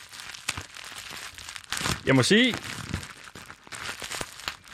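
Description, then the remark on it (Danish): Crinkly plastic rustling with scattered sharp little pops, like bubble wrap being squeezed and burst, running throughout while a person talks and a brief rising vocal sound cuts through midway. “Sidde med bobleplast i hvert indslag, så vi kan blive lykkelige.”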